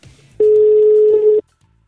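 A single steady telephone ringing tone sounds for about a second, loud, a flat pure hum against a faint low background that fades right after, as a phone call is placed to a co-founder of the company Makers Valley before it is answered.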